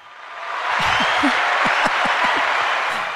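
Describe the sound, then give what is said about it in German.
A burst of crowd applause from a small sound machine, played for an architect and a project manager, plays steadily for a few seconds. It is a dense wash of many hands clapping with a few whoops mixed in, swelling in and fading slightly at the end. “Da gibt es mal einen kleinen Applaus für, okay?”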